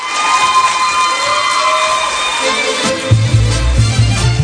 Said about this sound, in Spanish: El aplauso